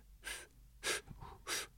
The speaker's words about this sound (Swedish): Jag suger i mig luft.